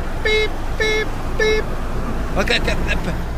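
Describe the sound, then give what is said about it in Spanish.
A car parking itself after a button is pressed sounds three short, evenly spaced electronic beeps over a low engine and road rumble, followed by a brief burst of voice-like sound. “No, menso, yo le acabo de apretar aquí, se estaciona solo.”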